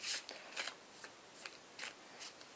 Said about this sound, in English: I'm gonna shuffle the cards a bit better today.